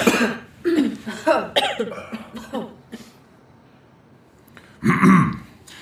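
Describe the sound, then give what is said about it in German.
Someone coughs from too much smoke in a rough, hacking fit, a rapid string of harsh coughs, then a short quiet pause before one more loud cough. No talking. “Zu, zu viel Rauch das kannst du laut sagen.”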